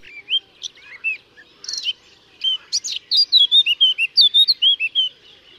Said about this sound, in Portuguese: carriça